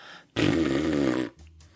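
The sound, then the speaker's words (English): A single loud raspberry blown with the tongue out, a wet, fluttering buzz lasting about a second before cutting off into quiet. “So he would blow his lips, and then uh, a raspberry. That's what I've always called them. Is you you kind of stick your tongue out and and blow, so it sounds like this.”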